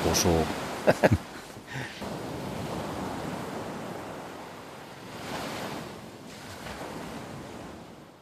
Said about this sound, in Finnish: Mutta tämä on siis Välimeren aallot Kreetan saarella. Eikö aika täyteläistä menoa?